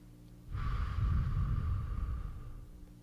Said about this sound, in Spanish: Y ahora respira tranquilo. A tu tiempo cierra los ojos. Sigue respirando tranquilo y profundo.